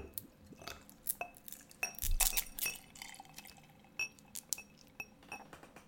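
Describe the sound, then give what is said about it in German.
Gin poured over ice cubes in a glass, with a splashy pour in the middle and sharp, irregular clinks and cracks of ice against glass throughout. No one speaks. “Also ich schütte ihn mir jetzt hier schön über Eiswürfel und dann trinke ich den ganz kalt.”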